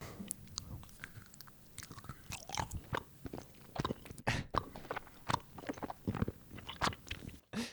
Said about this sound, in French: Mais par contre, euh, par contre comme ça, des, des, des véritables morceaux croqués, c'est bon, on va voir. Je me lance.